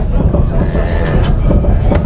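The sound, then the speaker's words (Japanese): A train rumbles past on the elevated tracks overhead in Umeda, Osaka, heard from a retro café beneath them, with a steady, continuous low roar and faint rhythmic clatter, filling the whole moment at fairly loud volume. “今これ電車通ってます”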